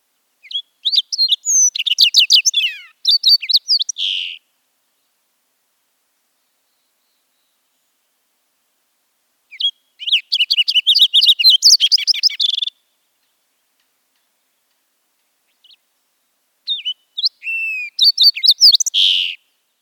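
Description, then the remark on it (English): A thick-billed fox sparrow, a bird of mid to high elevations in California, sings three bright, warbling phrases of rapid chirps and slurred whistles, each lasting a few seconds and separated by pauses, clear against silence. “Next is thick billed. This lives in California in mid to high elevation.”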